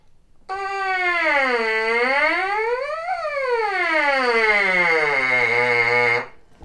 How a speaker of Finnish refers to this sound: Ja sen voisi ajatella vähän niin kuin tiivistävän tota värähtelyä, tekevän, tekevän siitä niin kuin selkeämmän. Ja siitä tulee tämän kuulonen. Ja pystytään vaihtamaan ääntä esimerkiksi tällä pelkällä suukappaleella soittaessa.